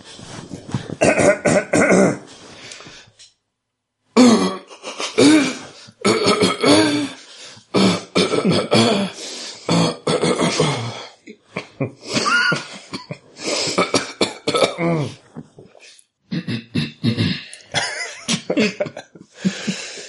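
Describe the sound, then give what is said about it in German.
Someone clears their throat over and over in loud, rasping bursts, mixed with cough-like hacks, with only a few short pauses and no talking. “Ja, räuspern wir uns nochmal.”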